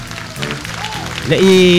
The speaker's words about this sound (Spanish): Vino la gente del catering fuerte el aplauso para la gente del catering, ¿no? Fuerte el aplauso. ¿Qué sería esto sin la gente del catering?